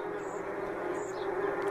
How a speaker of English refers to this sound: They're big. They're scary, right? Yeah, yeah, about two inches uh, long. Ugh. Yeah, they're pretty. Uh, and uh, yeah, yeah, listen, listen to that. That's just a, a hornets or a wasp nest